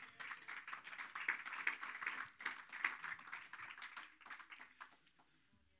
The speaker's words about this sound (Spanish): Y por eso le doy gracias a Dios, por ese Dios tan bueno. Dile un aplauso al Señor.